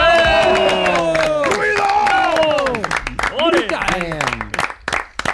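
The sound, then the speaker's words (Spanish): A crowd breaks into loud applause in support of someone's doctoral thesis, dense clapping mixed with cheering and whooping voices; the shouts fade after a few seconds, leaving the sharp, rapid claps more prominent. “Arcano lo hace sobre cada instrumental, seguramente la va a probar, seguramente no vaya mal, así que un aplauso y mucho ánimo para su tesis doctoral.”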